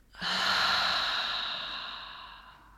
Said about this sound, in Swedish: Så släpp ner axlarna, slappna av i ansiktet och ta ett djupt andetag in genom näsan. Fyll upp både bröstkorgen och magen med luft. och andas ut långsamt genom munnen.